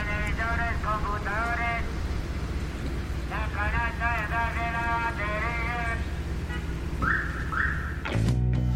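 A scrap collector's truck loudspeaker blares a loud, distorted, sing-song call in repeated warbling phrases over a steady low rumble of traffic, ending with a sudden bump.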